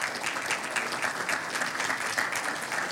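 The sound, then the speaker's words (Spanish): A steady burst of applause in a church for the mothers of the audience, many hands clapping together in a dense, continuous patter at an even loudness throughout, with no voices speaking over it. “Un aplauso a todas ellas.”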